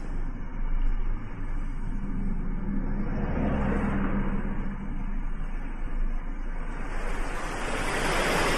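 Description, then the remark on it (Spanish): Ocean waves break on the shore in a steady, loud wash of surf, swelling around the middle and again toward the end, with no voices present. “Cuando abrí los ojos, el sol era distinto y ahí estaba el mar frente a mí.”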